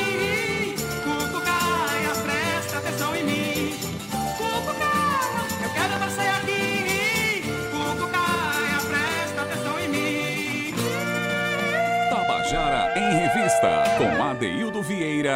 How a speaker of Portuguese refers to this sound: Você acabou de ouvir a canção